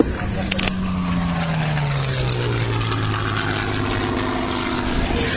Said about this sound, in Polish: Właśnie wyleciał samolot z znacznie mniejszym silnikiem niż Messerschmitt 109. Nazywa, to jest samolot z pierwszej wojny światowej Sopływ Pap. Sopływ Pap, czyli szczeniak.